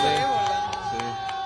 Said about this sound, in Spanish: Todos le aplauden de que qué valiente